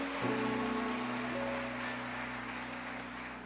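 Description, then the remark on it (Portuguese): Steady rainfall makes a continuous, even hiss throughout, fairly soft and without distinct drops, accompanied by a faint, constant low hum in the background. No one speaks. “Sei vocês, mas eu amo barulho de chuva.”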